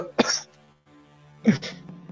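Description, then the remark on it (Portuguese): A person imitates coughing: two short, raspy coughs about a second apart, fairly loud, with a brief quiet gap between them and no talking. “Eu Era assim, no meio de um busto cambaleando, dando uma, dando uma tossida assim.”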